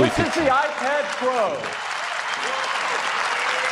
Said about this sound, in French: Et tout le monde applaudit, mais on n'a rien vu. Ah, iPad Pro. Alors voilà, iPad Pro.